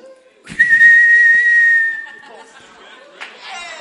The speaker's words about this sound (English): It's like a whistle is blown.